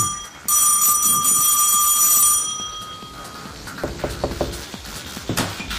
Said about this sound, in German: Irgendwann werden sie das Klingeln schon hören.